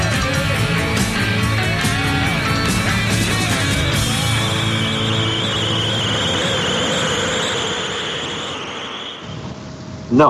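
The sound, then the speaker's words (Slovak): Car brakes screech in a long, loud, sustained squeal lasting several seconds over dense background noise, fading slightly before cutting off abruptly. “Hej, to boli, to boli brzdy toto, hej, to hamovali.”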